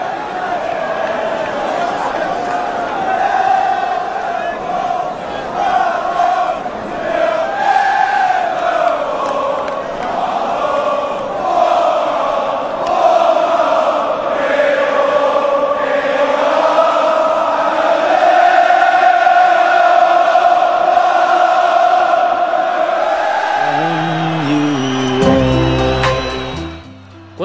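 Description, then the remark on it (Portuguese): A huge stadium crowd of football supporters, their team trailing Milan 3-0 at the end of the first half, sings together in a slow, sustained anthem, thousands of voices swelling and blending into one loud, echoing chorus that carries on steadily for nearly half a minute. “O time parecia estar tá abatido, mas a torcida não.”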